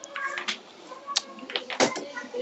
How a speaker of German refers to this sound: mal Tür zu.